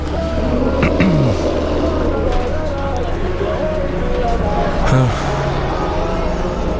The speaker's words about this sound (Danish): Den ryster meget, ikke? Jo. No. Det er ligesom sådan en indisk øh, overfyldt øh, bus, ikke?